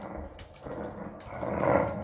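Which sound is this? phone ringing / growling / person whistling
growling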